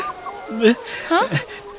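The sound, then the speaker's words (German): A wolf pack howls together, several overlapping voices sliding up and down in pitch in a short, wavering chorus. “Aber kann es sein, dass das Rudel jetzt wirklich ganz in unserer Nähe ist?”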